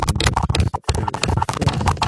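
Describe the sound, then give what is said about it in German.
Dense crackling and crunching, a busy run of rapid irregular snaps that continues throughout, with only a brief gap partway through. “jetzt knastert und knuspert es.”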